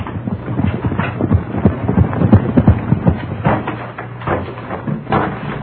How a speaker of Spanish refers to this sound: Porfirio Cadena siguió hasta el poblado del Puerto y en una de aquellas viviendas humildes detuvo su caballo.